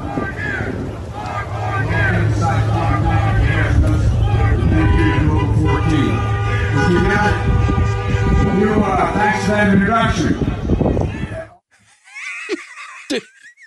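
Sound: crowd chanting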